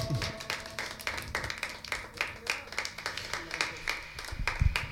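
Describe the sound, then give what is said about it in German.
An audience applauds for the performer Knockout Knob, a dense patter of many hands clapping steadily throughout at a moderate, fairly even volume, with no voices standing out. “Ja, Applaus für Knockout Knob.”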